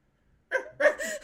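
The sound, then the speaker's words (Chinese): After a moment of silence, a person imitates a dog barking with two or three short, loud, voiced yelps in quick succession, mid-pitched and strained. “我们要变狗哎！来学两声”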